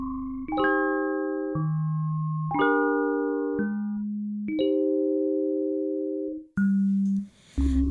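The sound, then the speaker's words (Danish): Instrumental intro to a pop song cover: sustained, bell-like chords struck every two seconds or so over deep bass notes, steady and fairly loud, no singing yet, ending with a brief noisy swell. “Men først noget musik, og så vender vi tilbage.”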